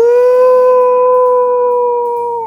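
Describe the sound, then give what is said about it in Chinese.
A single sustained wolf howl coming from inside a shack, loud and held on one high, steady pitch for a couple of seconds before sagging slightly and fading at the end, with no talking. “从里面传出嚎叫声，哈哈哈哈哈！”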